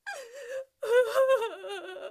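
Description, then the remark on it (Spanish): A voice imitates a loud, wailing cry: a short drawn-out sob, a brief pause, then a longer wavering wail with quivering pitch, with no other sounds around it. “Pero suéltenme un llanto, por favor.”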